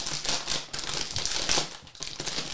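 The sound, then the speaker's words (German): Crisp, crackling rustles of a snack bag being handled, coming in irregular bursts of crinkly noise with brief pauses between, and no voices. “Jetzt knistert es nochmal.”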